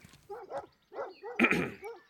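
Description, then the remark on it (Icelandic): Four dogs walking with a man bark in a quick, uneven string of yaps and woofs, some overlapping in a louder burst midway, with no one talking. “Eftir stuttastund á gangu mætir hann manni sem hefur með sér fjóra hunda.”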